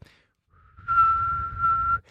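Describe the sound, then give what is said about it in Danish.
A person whistles a single steady, high-pitched note held for about a second and a half, imitating the thin squeal of hearing aid feedback, fairly loud with a low rumble underneath. “Og fordi min mor, hun har sådan et høreapparat, så man, hvis man står tæt på hende og fløjter sådan her”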